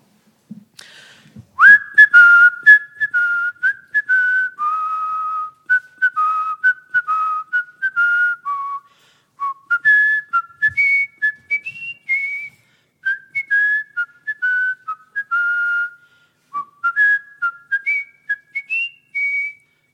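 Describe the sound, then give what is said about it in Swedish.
A person whistles a lively Mozart medley solo, clear, with quick runs of notes and short pauses for breath, continuing steadily for the whole stretch. “Men istället för att hedra henne vill jag vissla ett Mozart potpourri.”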